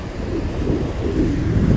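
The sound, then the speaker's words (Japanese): A steady, broad wash of surf rolls on at a harbor swimming beach on the east side of Hachijojima, Japan, in the morning in fine weather, with the low roar of waves and gusty wind noise buffeting the microphone; no one speaks. “朝日がもう昇ってきてまして今から暖かくなりそうですいい天気です波の音伝わりますでしょうか”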